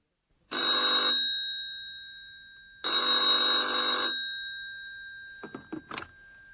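A telephone bell rings twice in loud, clear bursts with a short pause between, followed by a few quick clicks like a receiver being picked up, as a call from a hotel reaches a doctor at his home in Berlin.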